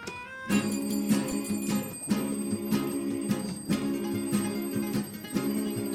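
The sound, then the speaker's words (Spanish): An alarm clock's loud, bright bell keeps ringing without pause, with sharp metallic strikes recurring at a steady pulse over a dense, sustained clatter. No one speaks. “A golpe de despertador, con la moral bien bajada, a duras penas de la cama,”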